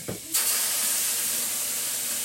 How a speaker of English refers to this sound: Careful, because when that steam comes up. oh yeah, go make sure your arm isn't It'll, it'll, it'll burn you.